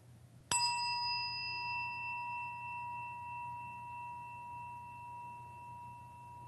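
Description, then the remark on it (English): A single meditation chime is struck once and rings on with a long, clear, slowly fading tone, heard alone over a faint steady low hum. “As we listen to the chime, let us remember our connection to each other and the world around us.”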